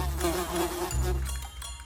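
Flies buzzing steadily, a continuous droning hum with slight wavering pitch, loud and alone for the whole moment without any voices.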